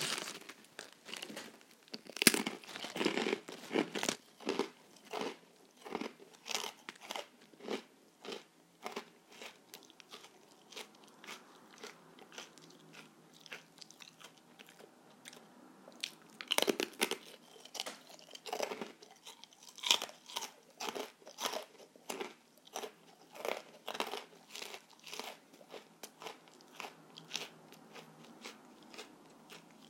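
Crisp crunching of senbei rice crackers sent from Japan as they are bitten and chewed, with rapid, repeated brittle cracks and crinkly snaps throughout, loud with no talking.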